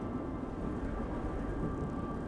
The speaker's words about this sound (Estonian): kuuled, rong tuleb, poiss.